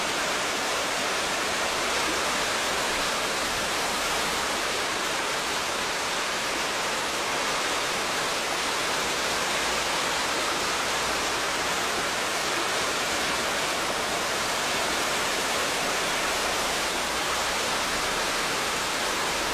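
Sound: waterfall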